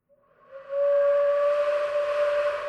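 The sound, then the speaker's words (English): A single low note from a wood-burned bamboo flute swells in and holds steady, breathy and airy with a hollow, haunting quality. It is fairly loud, with no talking. “This is actually a, a bamboo flute that's been wood burned, and it has this almost like a grave, like a haunted sound.”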